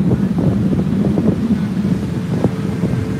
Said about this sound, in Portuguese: Deixa eu arrumar o vento aqui. Vai melhorar o vento, tá?